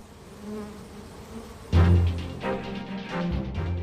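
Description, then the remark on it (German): A dense, steady buzzing of many bees washboarding on a wooden box, rocking back and forth in unison while working its surface with their mouthparts, swelling louder partway through into a rich drone, with no voices present. “Es summt und brummt.”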